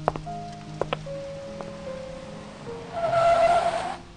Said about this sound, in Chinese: 街道上车辆飞驰，而他如同一只孤雁一般，找不到回家的路，在路上无助地走着。